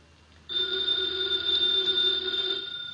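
A telephone bell rings loudly in one clear, continuous burst lasting about two seconds, with no voices, then cuts off; the phone bell opens a Nero Wolfe radio adventure.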